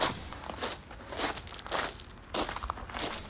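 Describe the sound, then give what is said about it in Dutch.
A series of crunching footsteps on gravel at night, a man walking outside a house, each step a gritty, crackling burst in a steady walking rhythm, moderately quiet, with no voices. “Opeens hoorden we iemand of iets over het grind lopen.”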